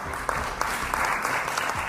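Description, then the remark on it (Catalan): Part of the Parliament chamber applauds at a plenary session as deputy Lluís Guinó of Junts per Catalunya is received: dense overlapping hand claps forming a continuous rustling wash with a few sharper individual claps standing out, no voices. “De tots ells, només n'hi ha un que segueix de diputat al Parlament, Lluís Guinó, de Junts per Catalunya, que va ser rebut al ple amb els aplaudiments d'una part de l'hemicicle.”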